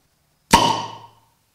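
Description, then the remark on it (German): A Flensburger swing-top beer bottle pops open with one sharp, loud plop, followed by a short ringing glassy tail that fades within about half a second. No voices accompany it. “Flensburger hat daraus ja wirklich eine Marke gemacht, aus dem Plop”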